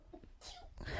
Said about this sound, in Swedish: Oj, prosit! Tack!